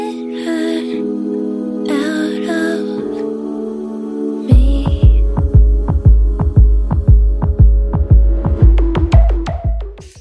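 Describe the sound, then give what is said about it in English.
A song opens with sustained humming tones, then a deep, heartbeat-like drum kicks in halfway through, thumping steadily and loudly in a regular pulse beneath the held notes until the end. “And then you get your heartbeat kind of drum thing going on.”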